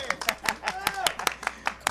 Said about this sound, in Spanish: ¡Felicidades! Un aplauso, chicos, por favor. ¡Que se escuche!